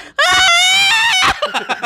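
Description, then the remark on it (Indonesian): A single loud, piercing high-pitched note sung in whistle voice, held steadily for about a second, then cut off as brief chatter follows. “Oh, itu namanya whistle voice.”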